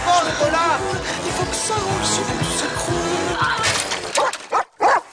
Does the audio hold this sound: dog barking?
yes